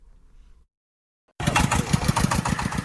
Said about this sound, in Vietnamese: Tiếng xe tải chở củ cải trắng từ bốn sao ruộng nhà chị Hoàng Thị Dung, thôn Đông Cao, xã Tráng Việt, huyện Mê Linh, thành phố Hà Nội không trở ra trung tâm thành phố bán như những vụ trước mà là đem đổ bỏ.